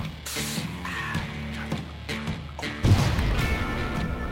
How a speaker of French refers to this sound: C'était quoi cette explosion